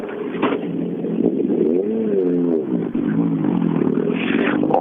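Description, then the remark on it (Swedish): Viktor Karlsson's rally car engine roars loudly on a fast stage, its harsh, growling tone climbing and dropping as it revs through the gears, steady and unbroken for the whole stretch. “Och så har vi en, en bil med en riktigt ilsken sång i.”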